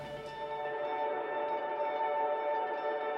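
A sustained electric guitar chord run through a long ping-pong delay into a tape machine emulator, smeared by tape-style echo and reverb, its repeats blending into a steady, shimmering ambient drone that holds at an even level throughout, with no voices.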